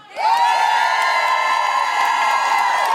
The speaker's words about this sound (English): Don't cheer so loudly for another venue in this venue. It'll hurt its feelings.